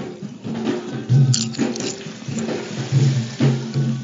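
Loud crunching of a crisp papadam, with several crackling bites and chews in an uneven rhythm and no talking.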